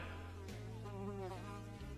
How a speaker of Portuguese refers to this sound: A mosca agora pulou para a testa do Aristides.